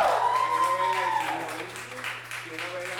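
Audience applause, a dense, steady wash of clapping lasting about three seconds, with a drawn-out cheer riding over it at the start and a low constant hum underneath.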